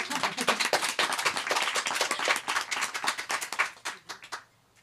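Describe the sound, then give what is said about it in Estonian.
A crowd applauds steadily for several seconds, many hands clapping densely, the applause thinning and fading out near the end; applause given to cleanse the room during a break, at a Tartu film festival day. “et see on veel, et siin oli see tuur, nüüd hakkab post, podcast vahepeal see hea ruum ära puhastada aplausiga. et võib korralikult aplausida.”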